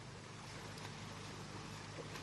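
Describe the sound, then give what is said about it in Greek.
A steady, broad rush of floodwater and waves of mud surging along a road in Rizovouni, Karditsa, Greece, with churning, turbulent flow and a low rumble underneath, continuous throughout and with no voices. “Εικόνε χάου με κύματα λάσπη εδώ στο δρόμο που και βρισκόμαστε.”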